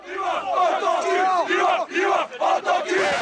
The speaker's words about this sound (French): Dans le foot, l'homosexualité est particulièrement taboue et les insultes homophobes sont une triste tradition, à commencer par les cris de supporters dans les tribunes.